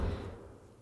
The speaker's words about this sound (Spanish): Mira, aquí están tirando cosas en este edificio. Yo no entiendo, es segunda vez que suena así de duro algo.